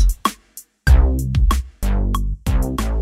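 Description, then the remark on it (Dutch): A deep synthetic bass line, programmed in Ableton, plays in three sustained notes over a simple electronic drum beat of kick, snare and hi-hat with sharp hits. It's loud, and there is no talking. “En een bas.”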